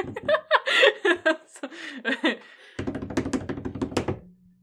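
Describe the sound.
Laughter and voices give way to a quick, steady drum roll of fingers rapidly tapping a tabletop, fairly loud, lasting about a second and a half before stopping abruptly.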